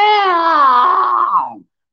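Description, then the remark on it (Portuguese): A girl's high-pitched scream from an MSN Messenger chat animation, loud, held for over a second before trailing off with a falling pitch and cutting out abruptly into silence. “porque eu estava lá escudidinho no MSN, vi um desgraçado, mandava a menina gritando. Aí dava um grito na sala, era uma loucura.”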